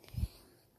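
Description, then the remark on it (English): A dog napping in the room where a recording is being made gives one short, low, soft snoring snort, followed by quiet breathing-like hiss in an otherwise still room. “And if you hear anything in the background, it is my dog who is currently snoring.”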